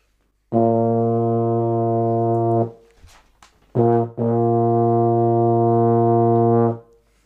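Two long, loud ship's horn blasts, deep and steady with rich harmonics, the first about two seconds, a brief gap, then a longer second blast of about three seconds, with no talking.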